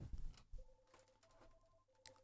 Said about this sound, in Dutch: Wat is dit? Er gaat hier een telefoon.